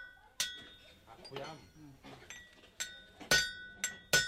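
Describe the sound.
A blacksmith's iron hammer strikes hot iron at a forge in Bulgwang-dong, Seoul, with five sharp, ringing metallic clangs, loud. A son wields the iron hammer while his nearly eighty-year-old father heats the iron. A single blow comes first, then quicker ones toward the end, with a voice speaking briefly in between.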